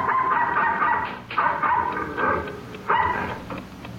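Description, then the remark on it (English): A dog barks repeatedly at night on a ranch in Carson County, Texas, with sharp, fairly loud barks spaced irregularly a second or so apart, over a steady background hiss and with no one talking. “11:30 on the night of May 22, 1947, the Stockholm Ranch, located in the middle of Carson County, Texas, was darkened for the night when the occupants were awakened by the barking of a dog.”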